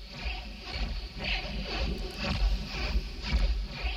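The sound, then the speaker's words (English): A slowed-down helicopter in the trailer for the 1990 film Jacob's Ladder: a deep, continuous rumble with drawn-out whooshing pulses recurring roughly once a second, steady and fairly loud, with no voices. “Believe it or not, that's a helicopter.”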